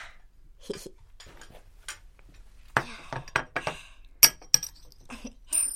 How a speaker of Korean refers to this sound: 조리대 위에 벗어났던 달팽이 반지가 파스타 접시에 부딪히면서 밑으로 떨어지더니 연구실 쪽으로 굴러갔다. 반지는 연구실의 열린 문틈으로 굴러들어가 기계들이 놓인 책상 구석에서 멈췄다.